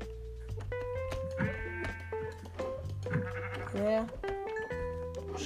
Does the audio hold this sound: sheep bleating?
yes